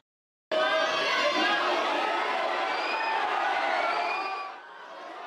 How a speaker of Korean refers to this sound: 한참을 기다린 끝에 선수단이 들어오자 공항은 함성으로 가득 찼고